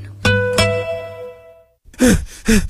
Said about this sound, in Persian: چرا نفس نفس میزنی؟